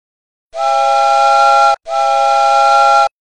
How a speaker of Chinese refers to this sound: 小火车托托。拉响了他的汽笛，远远的传到了他的小伙伴们那里。